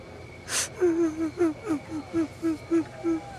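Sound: person crying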